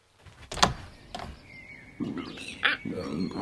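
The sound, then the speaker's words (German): A door opens: a couple of sharp latch clicks, a thin drawn-out creak, then a louder knock and rustling as it swings open. “Na, mache meinem Busenfreund die Türe auf.”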